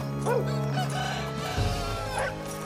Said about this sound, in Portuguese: Nenhuma das pessoas da cidade se encontram nas ruas e nem trabalhando, mas o galo já canta no fundo.